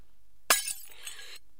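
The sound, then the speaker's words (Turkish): Three teacups, the last of a supposedly unbreakable set, fall and shatter in one sudden, loud crash, followed by a second of scattered, tinkling fragments settling before everything goes quiet. “Sinirden fincanların düşmesine de neden oldun.”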